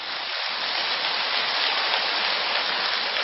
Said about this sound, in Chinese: 如果还想改的人，就跟我鼓掌，鼓得响一点。